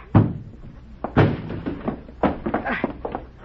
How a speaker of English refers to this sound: Break down the door.